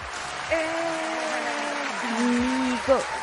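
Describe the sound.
Steady studio applause for the show's host on the programme Vibradas fills the whole stretch, dense and sustained, with a few voices cheering and whooping over the clapping before it tapers slightly at the end.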